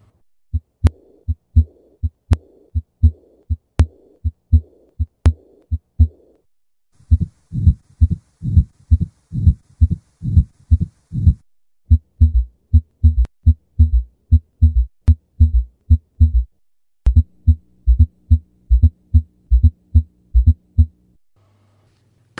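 Steady heartbeat with a soft whooshing diastolic murmur, heard as the heart relaxes, following the second heart sound of each beat, repeating rhythmically for the whole recording with no voices.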